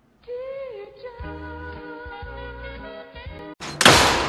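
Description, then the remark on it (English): Kids repeatedly slam a door with heavy, booming thuds over a sustained tonal drone, ending in one loud, crashing bang. “You kids, quit slamming my goddamn door!”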